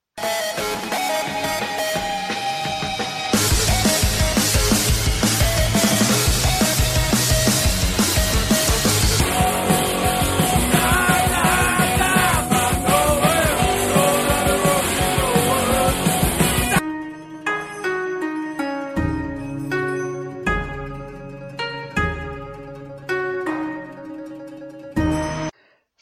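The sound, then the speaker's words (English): A montage of music snippets in different styles, punk, folk, jazz and metal, jumping from loud, dense full-band sections to a sparser, lighter passage near the end, with no talking. “music from many genres and many different types, going from anything from punk to folk, jazz to metal.”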